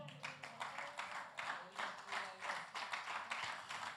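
A crowd claps together in a steady, rhythmic burst of applause for God during a Spanish-language sermon, lasting several seconds with no voices over it.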